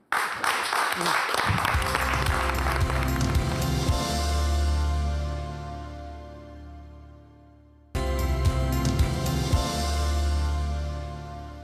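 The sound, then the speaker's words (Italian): A burst of crowd applause opens, dense and crackling, then quickly gives way to sustained music with steady tones and a low rhythmic beat that carries on after a brief cut. “Grazie, applauso.”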